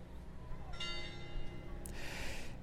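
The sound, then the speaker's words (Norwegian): A church bell tolls eight times for eight o'clock in the evening. Its deep resonant ring hangs and fades over steady outdoor background noise, with a brief rush of wind-like hiss partway through. “Nå hører dere at det ringer i eh, kirkeklokken, folkens. Og nå skal det ringe åtte ganger fordi klokka er åtte på kvelden.”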